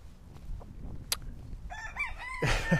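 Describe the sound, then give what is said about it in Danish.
A rooster, one of several around, crows, its harmonic, wavering call rising and falling over low background rumble, with a brief sharp noise just before it. “Ah, jeg ved ikke, om du kan høre den her hane. Der er flere af dem.”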